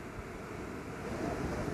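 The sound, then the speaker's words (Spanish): A steady wash of ocean surf on a sandy beach, a broad rushing hiss that swells slightly toward the end, with no voices and no distinct individual wave crashes. “Y mientras van inhalando y van exhalando con este sonido de fondo, sientan que están en este lugar, si es que les gusta el mar, conmigo, a mi lado, y que todos estamos aquí sentados en, en la playa, en la arena,”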